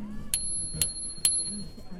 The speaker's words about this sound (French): Et la sonnette, elle sert à quoi Il y en a une petite pour avertir